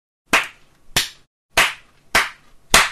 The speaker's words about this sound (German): Soll ich klatschen? Ja, bitte